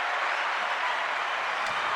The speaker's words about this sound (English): because we're we're on the cell phone, but everyone did applaud for you.